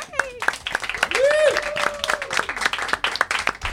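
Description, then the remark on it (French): An audience applauds itself at the end of a week of shows, with dense, steady clapping lasting several seconds, while whoops and cheering voices rise above it, including a sustained rising-and-falling shout. “Merci au public qui a grandi au fil de la semaine. Il y a vraiment une belle gang. Applaudissez-vous.”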